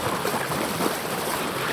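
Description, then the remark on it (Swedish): Steady rushing and splashing of water from the bow wave of an X-Shore electric boat leaving Djurgården in Stockholm on a windless early-summer day in June, continuous, with no engine noise and no voices. “Det är vindstilla dessutom, så det enda vi hör här det är bogsvallet.”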